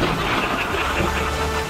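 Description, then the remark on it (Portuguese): Steady rain pours down in a continuous, even hiss with a dense patter spread across high and low tones, holding the same moderate loudness throughout with no voices. “Pensei que fosse ar-condicionado. Não, chuva, chuva, chuva, chuva.”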